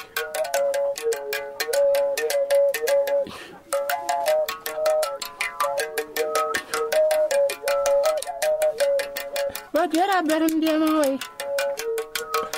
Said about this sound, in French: Nous partons en Afrique maintenant, et je vous propose d'écouter un instrument assez passionnant et intéressant, l'arc musical.